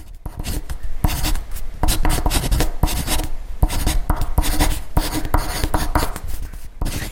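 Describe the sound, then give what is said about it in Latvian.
A marker drawing on paper, with a steady run of scratchy, squeaking strokes and brief pauses between them, continuing for several seconds with no one talking. “Visai ģimenei patīk šī skaņa. Ar zīmolu zīmē.”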